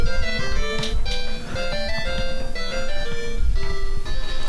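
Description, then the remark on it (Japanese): Bright, beeping 8-bit Famicom video game music plays continuously at steady volume, with square-wave notes in a quick, bouncy melody and a slightly crackly, buzzy, glitchy edge from a poor connection. No one speaks. “懐かしい音やな、これ。早っちょっとバグってるな。ちょっとガサってるな。”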